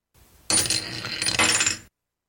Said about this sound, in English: to create a pleasant and rhythmic tinkle sound while the coins falling down the spiral tube.